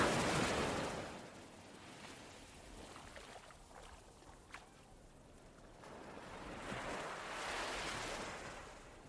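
Waves wash onto a beach in broad, hissing surges, one rolling in at the start and another swelling near the end, with a soft rumble of surf between them and no voices.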